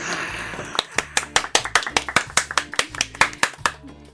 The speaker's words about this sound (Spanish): ¡Aplausos!